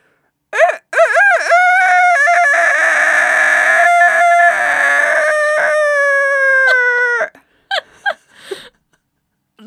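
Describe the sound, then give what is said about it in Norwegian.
A person imitates a rooster's crow: one long, strained cock-a-doodle-doo held for several seconds, loud, the voice cracking, ending with a few short breathy gasps. “Så det er jo høne, og så kan du ta hane som er sånn”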